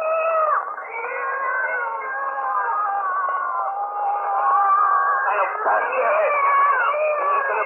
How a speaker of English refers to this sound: one of the tenants has just rushed downstairs from his apartment in a fury. For the third night in succession, his sleep has been disturbed by a cat howling in the alley.